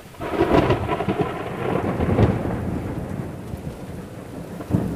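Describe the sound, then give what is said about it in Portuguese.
Deep, rolling thunder from a violent storm over a jungle forest rumbles continuously over the steady hiss of heavy rain, swelling in loudness near the middle and ending with a sharper crack. No voices. “Rugiu o trovão e a tempestade desabou com incontida fúria.”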